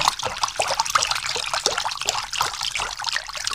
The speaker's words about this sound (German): Er griff mit beiden Händen nach dem Baumstamm, legte sich bäuchlings ins Wasser und strampelte wild mit den Beinen.